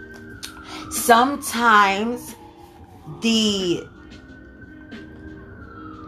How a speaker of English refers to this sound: sorry for the sirens in the background.